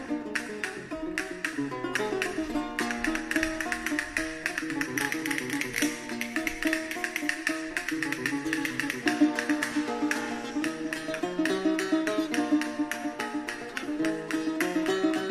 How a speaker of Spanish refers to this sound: Pues hoy vamos a escuchar una jácara, que es esto que estáis escuchando, escuchando ya, de fondo. Esto es una jácara. Ahora voy a explicar por qué y para qué, y dónde y cómo se escuchaban las Como veis, mucha castañuela.